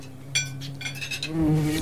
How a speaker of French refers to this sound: une guêpe sans emploi change de comportement. Elle s'aventure loin de la colonie en quête de sucre